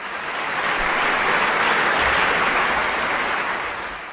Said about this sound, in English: You have to just let's try that again, and you have to bring it down. Okay, do it. let's do the applause again.